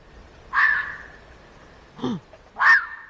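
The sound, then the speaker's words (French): A red fox's mating call, heard in December: two loud, harsh screams about two seconds apart, with a shorter, lower yelp between them, each cry ringing out sharply against a quiet background with no talking. “Ça, c'est le cri du renard amoureux.”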